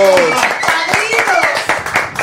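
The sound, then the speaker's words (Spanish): Studio audience applause: a loud, steady patter of many hands clapping, with voices cheering and calling out over it throughout. “¡Bravo! ¡Aplausos! ¡Aplausos!”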